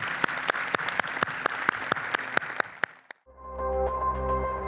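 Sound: audience applauding and cheering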